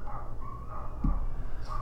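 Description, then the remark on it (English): Dogs next door barking, muffled as if through a wall, with one short bark standing out over a steady low background rumble. No one speaks. “Anyway, I think um, the dogs next door are upset about that.”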